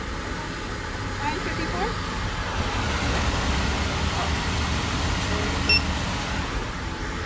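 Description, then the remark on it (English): A single short electronic scanner beep rings out near the end as a payment app is scanned at a Starbucks counter, over steady, busy shop ambience with indistinct voices and traffic-like rumble in the background. “That was the sound of them scanning the app.”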